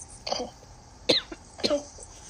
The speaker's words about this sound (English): Pretty sure this is just a cold. It's literally just a sore it's throat. it's nose, cough corner. it, I, I'm pretty sure it's just a cough and a sore throat.